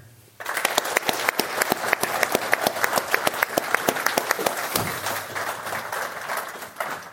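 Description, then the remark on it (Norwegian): A big round of applause from a crowd at an event, for the whole team that organised it: dense, steady clapping that starts abruptly and carries on for several seconds at an even, loud level with sharp individual claps standing out. “Så jeg syns vi skal starte med en stor applaus til hele gjengen.”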